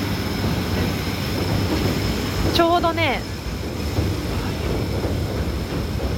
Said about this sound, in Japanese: 電車のレールの真下で撮っております環境音ということでお許しください